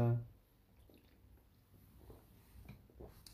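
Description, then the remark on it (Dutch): A quiet sip of a drink: a brief low hum at the start, then soft, faint wet slurping and swallowing sounds with small clicks, no talking. “Ik neem even een slokje, want dat uh, gelul dat.”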